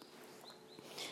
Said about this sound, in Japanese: 私の家はなんか本当あの一応都会だとは思うんですがめっちゃ鳥の声するんですねなんかで なんかめっちゃ鳥の声入ってくるんですけど